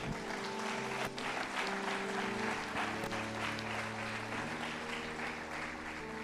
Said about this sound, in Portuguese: Aplaude a Deus, aplaude.